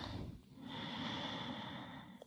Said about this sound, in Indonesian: nafas panjang dari hidung.